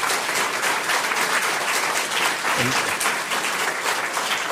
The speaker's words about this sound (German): Klatschen Sie nicht so lang, sonst ist die Sendung gleich rum.